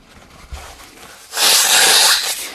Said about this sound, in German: Ich muss eben die Nase putzen.